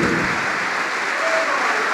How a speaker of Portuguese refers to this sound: E vamos aplaudir mais, vamos aplaudir mais por cada pessoa que está chegando.